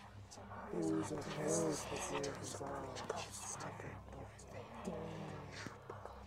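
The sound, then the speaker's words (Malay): Several overlapping voices whisper and murmur in a continuous hushed jumble over a steady low hum, creating an eerie, crowded atmosphere that persists without pause. “masih lagi kedengaran ya di belakang saya ini bunyi macam orang sedang berbisik.”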